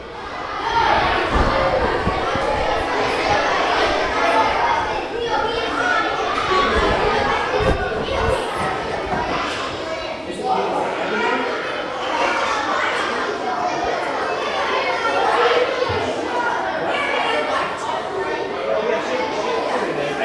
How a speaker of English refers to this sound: was fourth and fifth graders eating lunch